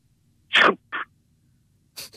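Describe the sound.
Someone imitates a slap (a 'şaplak') with their mouth: a sharp, hissy burst followed by a shorter one, then a pause and two quick, softer puffs. It sounds somewhat sneeze-like.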